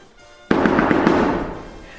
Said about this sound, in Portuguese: Oh, lá, desiste. Bater assim à porta vai arrasar o teu esqueleto.